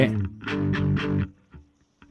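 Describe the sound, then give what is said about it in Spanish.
A distorted bass guitar plays a harsh, dissonant two-note chord on two strings, struck several times in a quick rhythmic pattern before fading into brief decaying plucks. “Sí, o sea, a pesar de que es el bajo, está tocando dos cuerdas.”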